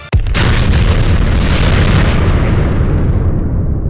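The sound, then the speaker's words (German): A single loud cannon boom erupts suddenly, then a heavy, rumbling roar carries on for several seconds, overpowering, with no voices. “Teleos 63, feuerfrei.”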